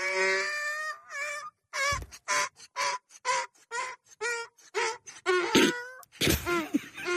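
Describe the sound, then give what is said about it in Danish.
A donkey brays loudly, starting with a long drawn-out note, then a rapid series of rhythmic, rasping hee-haw pulses, with no one talking. “Prøv lige at høre, hvad det her æsel siger.”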